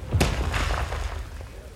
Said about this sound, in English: Another man joins him, and soon there's an immense cracking noise as the rock splits. The stonemason calls out to warn the other workers nearby and jumps back to avoid the boulder sized piece that crashes to the ground in front of him.